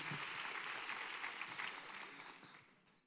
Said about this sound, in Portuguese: Vamos aplaudir a Jesus.